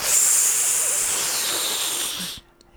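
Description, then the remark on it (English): A voice imitates a sharp intake of breath sucked in through the teeth, a steady hissing draw lasting over two seconds before cutting off abruptly. “Now, what the big job love person does is he takes the most cursory of looks at the washing machine, takes a swift intake of breath in through his teeth, like like so”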